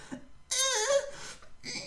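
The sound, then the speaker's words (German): A voice imitates a girl straining to pull herself up during pull-ups: a short breathy grunt, then a long wavering moan rising and falling in pitch, followed by another strained breath, fairly loud. “Und Geräusche gemacht. Und ich habe mir immer gedacht, so könnten Frauen beim Sex stöhnen.”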